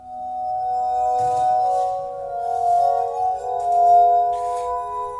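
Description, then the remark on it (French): Glass harmonica music: sustained, shimmering pure tones in a mid-high register, several notes overlapping and slowly shifting, played steadily and fairly loudly with faint breathy rubbing noise and no voices. “Beethoven a composé un peu pour l'harmonica, et avant lui, même Mozart, qui a composé pour l'harmonica de verre. Écoutez comme c'est joli.”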